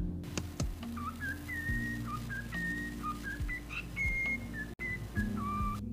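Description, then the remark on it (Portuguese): A cockatiel from the Instagram account Crumpet Dumpling whistles a melody from Zelda: a run of clear, steady, high notes stepping up and down in pitch, fairly quiet, over a low continuous hum with no talking. “Mano, beleza, eu só quero que eles escutem essa calopsita tocando Zelda.”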